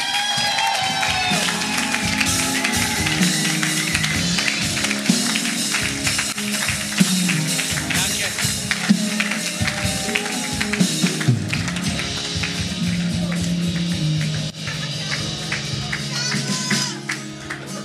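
An audience gives sustained, loud applause for a pastor being introduced: a dense steady patter of many clapping hands with scattered cheers, holding for nearly twenty seconds before easing slightly near the end.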